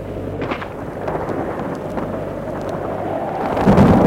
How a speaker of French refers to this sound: Le vent le tonnerre, le ciel qui devient sombre.